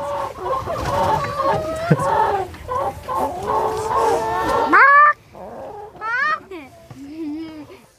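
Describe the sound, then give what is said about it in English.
Several chickens cluck and chatter in a dense, overlapping stream, followed by a few sharper rising squawks and softer clucks toward the end. “you see a chicken's bum? I wouldn't get too close to it.”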